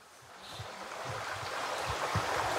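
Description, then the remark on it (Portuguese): Steady rushing of flowing water beside an abandoned coal mine, water that joins the Rio Carvão further down, a broad continuous wash that swells slightly louder toward the end, with soft low thuds scattered underneath and no voices. “E esse, esse rio que está passando aqui é o Rio Carvão?”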